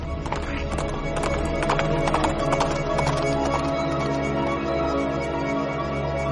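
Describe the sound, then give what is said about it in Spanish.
Rhythmic clip-clop of hooves, made by knocking shoes on a tabletop as a radio sound effect, trots steadily over a soft sustained background for several seconds, no talking. “unos zapatos que pones sobre la mesa y parecen el cabalgar de un caballo.”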